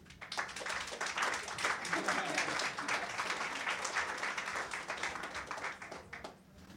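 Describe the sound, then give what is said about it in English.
Steady audience applause at a poetry reading as the next reader, a poet, is introduced, many hands clapping densely for several seconds before tapering off slightly at the end. “Give it up for”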